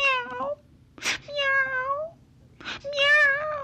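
A kitten called Misnito meows plaintively three times as it approaches a little girl, each cry high and wavering before sliding downward, with short breathy bursts of noise in the pauses between the calls.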